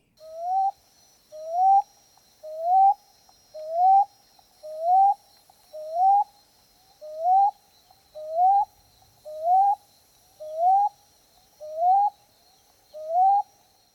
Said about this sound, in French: Son aire de répartition, c'est du sud des États-Unis au Costa Rica, nord de l'Amérique du Sud. Ses habitats, c'est des fermes, vergers, orées des bois, bords de route. Et comme à l'habitude, voici la voix de l'oiseau à l'honneur aujourd'hui.